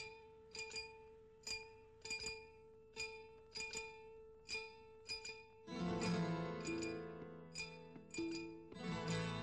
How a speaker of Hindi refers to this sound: तो शायद आप जानते होंगे कि उस गाने की जो शुरू की ट्यून है उसे एक कांच के ग्लास और चम्मच से बजाया गया था जी तो थोड़ा सा सुन लें एक बार फिर